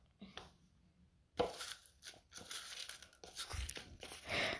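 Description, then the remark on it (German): Loud crinkling and rustling of plastic packaging, starting after a quiet moment and continuing in irregular bursts of crackly, tearing-like noise. “Raschel, raschel, raschel. Raschel.”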